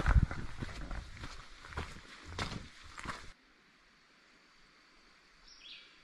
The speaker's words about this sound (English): All right, got some heavy breathing going on. We might even call it panting. Like when a dog is hot and they're breathing heavily, we might call that panting.